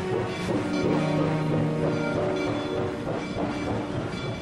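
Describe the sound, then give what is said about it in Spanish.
A train pulls away with a screech of iron into a stormy landscape: a steady loud rumble of rolling cars with faint rhythmic rail clatter and a sustained metallic whine layered on top, with no voices. “Roque, entre sorprendido e intrigado, alzó su mano para saludarlo, pero Salvador, aún detenido en la escalerilla, no se volvió a responder su saludo y el tren se hundió en el paraje tormentoso.”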